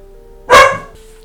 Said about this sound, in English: Alright, sorry. Where was I? all the dogs in my neighborhood started barking and it started making my dogs bark. So I apologize for that.